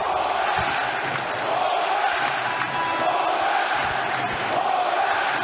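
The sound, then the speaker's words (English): A large hockey arena crowd on Long Island gives a standing ovation after Bo Horvat scores his first goal as a New York Islander. The crowd roars and cheers in a steady, loud wall of noise, with scattered shouts and whoops rising out of the sustained applause throughout. “But let's take a listen in to how the crowd reacted to Bo Horvat scoring his first goal as a New York Islander.”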